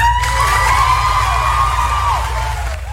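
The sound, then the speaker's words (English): A crowd cheers loudly and continuously as the 2022 Junior Fair Queen is announced at the Hancock County Junior Fair in Findlay, with sustained whoops and high shouts rising above a dense roar of many voices, holding steady for the full few seconds. “That was the sound of the Queen being announced.”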